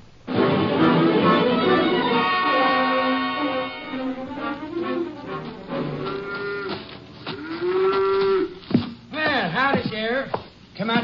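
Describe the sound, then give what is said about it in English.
A cow being milked on a farm moos loudly and at length, its long drawn-out low calls repeating, followed by shorter, wavering moos near the end. “Let go of that cow for a minute”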